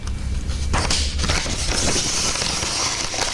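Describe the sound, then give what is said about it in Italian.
Paper being crumpled, a steady stream of dry crackling and crinkling that keeps going for a few seconds with no pauses and no voices. “È, sempre il suono di una carta che si stropiccia, Quindi...”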